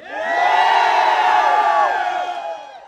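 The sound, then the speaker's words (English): A large crowd at a teachers union rally for workers' pay raises, held outside the San Antonio ISD central office in Texas, cheers and shouts together outdoors, a loud sustained roar of many voices that swells quickly, holds for a couple of seconds, then begins to fade. “This past spring, the San Antonio ISD Teachers Union held a rally outside the district central office. If you support pay raises for workers, let me hear you.”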